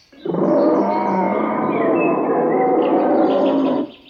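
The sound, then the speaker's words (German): A loud, sustained beastly roar of a horned bear lasting nearly four seconds, rough and growling with a steady intensity, alone with no talking. “Ich wunderte mich und sah mich um, und da war auf einmal ein gehörnter Bär.”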